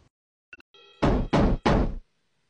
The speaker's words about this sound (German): Ich respektiere deine Privatsphäre und klopfe an.